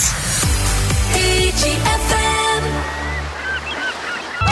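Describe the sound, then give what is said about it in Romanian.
An upbeat pop song plays steadily on the radio at moderate loudness, with a punchy drum beat, bright synth chords and a bouncing bassline; no one talks over it. “Cât de bine sună piesa asta”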